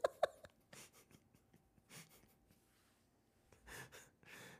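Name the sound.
dogs barking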